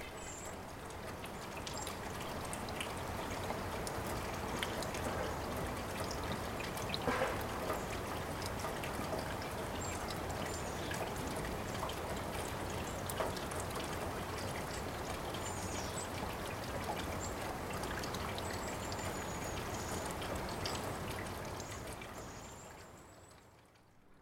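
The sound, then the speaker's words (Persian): Water trickles and flows steadily for the whole stretch, a continuous babbling with faint bird chirps overhead, before fading away at the end. No one speaks. “برای یکی شدن با طبیعت با صدای طبیعت برقصیم با صدای باد آب صدای پرنده ها”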